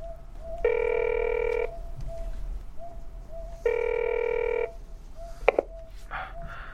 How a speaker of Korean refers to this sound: 무수는 전화기를 들고 창의의 핸드폰 번호를 누른다.